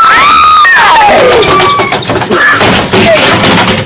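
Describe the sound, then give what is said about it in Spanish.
A chair, let slip while being carried down a flight of stairs, clatters and thumps down in a loud, jumbled series of knocks, with shouting voices rising over the tumbling crashes. “Dios mío, me, sentí muy mal y, y, no supe ni cómo se me soltó la silla.”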